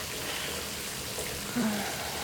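Shower water runs in a steady, even hiss, a continuous spray at moderate volume with no voices and a brief low murmur near the end.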